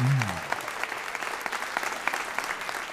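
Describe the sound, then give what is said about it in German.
An audience claps steadily for a performer's dialect piece in dense, overlapping applause that holds at an even loudness for the full stretch, with a brief voice tail fading out at the very start. “Jetzt euer Applaus”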